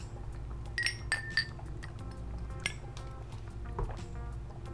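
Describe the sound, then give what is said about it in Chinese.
Glasses clink together in a toast: a few quick, bright, ringing taps in the first second and a half, then a softer clink, over a low steady background rumble. “干杯， 干杯 ，Cheers！”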